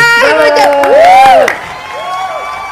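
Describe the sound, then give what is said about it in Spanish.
A crowd cheers and applauds as a radio host is introduced as co-host, with rising and falling whoops standing out over the noise, loud for a moment and then quickly dying down to a softer murmur. “¡Aplaudanme!”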